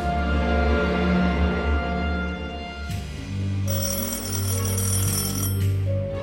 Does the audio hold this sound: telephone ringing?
yes